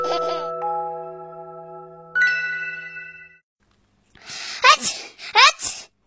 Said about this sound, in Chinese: 打了九十九个大喷嚏